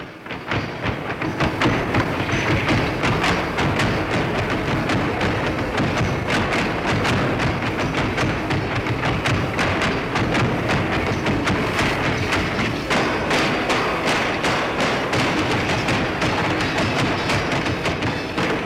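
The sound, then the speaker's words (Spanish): Purépecha zapateado foot-stamping by a group of ten men dancing with metronomic precision: dense, rapid percussive thuds and clacks in a steady, tightly synchronized rhythm, loud and continuous throughout with no voices. “Ahora escuchamos el zapateado de la versión anterior, diez hombres bailando con una precisión metronómica y con una matización de volumen y timbre de sonido que solamente se oye entre los purépechas.”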